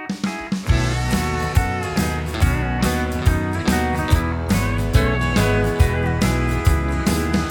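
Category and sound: song played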